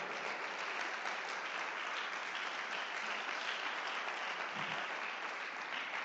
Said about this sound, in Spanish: Dale más fuerte ese aplauso al rey.